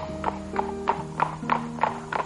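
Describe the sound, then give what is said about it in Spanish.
Horse hooves clip-clop at an even walking pace, about seven crisp strikes at moderate volume, over a soft, steady background hum of sustained tones. “Al notar que entre las frondosas copas de los árboles asomaban las torres de un palacio, el príncipe, que era muy curioso, se bajó del caballo para acercarse y poder ver mejor.”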